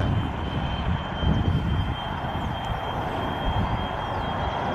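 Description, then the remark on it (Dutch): Steady, loud drone of an older Fokker propeller airliner's engines, a broad continuous roar with a faint high whine running through it, without any voices. “Ik, ik, moet even denken, maar het, het, we, hebben het over fokker, dus het zal een fokker zijn.”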